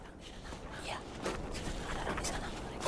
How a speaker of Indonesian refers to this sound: Namun, di tengah-tengah kehusyuan itu, terdengarlah suara langkah yang mengagetkan.